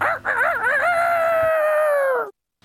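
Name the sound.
rooster crowing sound effect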